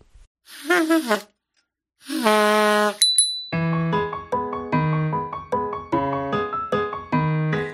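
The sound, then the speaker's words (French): A bright bicycle bell rings once, crisp, right after a few sustained sung notes in a French children's song, then a bouncy piano accompaniment starts up and carries on. “Une trompette, un piano, une sonnette de vélo, saute en bas et saute en haut.”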